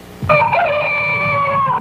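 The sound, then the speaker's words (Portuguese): A rooster's crow plays as the alarm sound of a Tolkien talking clock: one long, loud, strained cock-a-doodle-doo with a bright harmonic tone that holds steady for over a second, then cuts off. No one speaks. “além de falar, o relógio Tolkien tem um despertador super original e divertido.”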